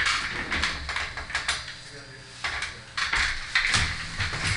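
A rolling office chair in a studio trundles across the floor, a continuous low rumble broken by clattering clicks and knocks from the casters over several seconds.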